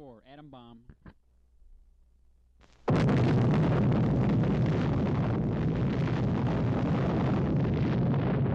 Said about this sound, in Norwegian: Det amerikanske militæret gjorde en prøvesprengning av en atombombe. og Den besto av plutonium, som er et radioaktivt grunnstoff. Konsekvensene ble en enorm og radioaktiv eksplosjon.